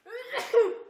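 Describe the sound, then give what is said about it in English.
A single sneeze from someone in the audience: a short voiced intake, then a sharp breathy burst that trails off into a brief vocal tail, heard on its own with no talking. “bless you”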